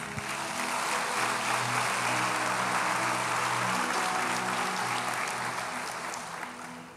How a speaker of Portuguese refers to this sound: Aplauda o Rei.